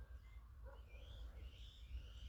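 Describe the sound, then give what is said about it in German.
Faint birdsong of a pigeon and other birds on a sunny spring evening, thin whistled phrases and chirps over a steady low outdoor rumble, with no one speaking. “die ganzen anderen Vögel, es ist so frühlingshaft, meine Güte.”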